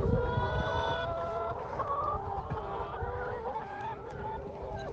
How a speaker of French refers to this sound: Et puis euh, là où ils font du maraîchage, il y a aussi quelques poules. Donc là, je suis parti rendre visite aux poules. Je pense que vous les entendez. Attendez, je vais vous les faire entendre un petit peu.